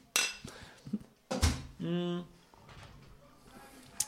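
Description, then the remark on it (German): Several sharp glassy clinks ring out, one striking hard near the middle, with a short voiced German exclamation of "Prost" and some background chatter around them, as glasses touch in a toast. “Prost,”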